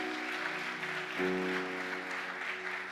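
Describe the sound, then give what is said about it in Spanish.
An audience applauds loudly and steadily for God, a dense wash of clapping that fills the whole clip, with a sustained low musical tone humming underneath. “Si hasta aquí Dios nos ha traído, ¿cuánto le aplauso fuerte a Él?”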